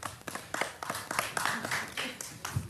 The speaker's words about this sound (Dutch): Is dat een applaus voor uzelf of zo?